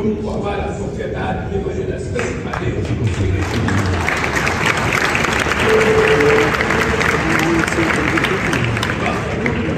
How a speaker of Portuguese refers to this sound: Olha as palmas dele. Oh. Ele bateu três palmas, assim.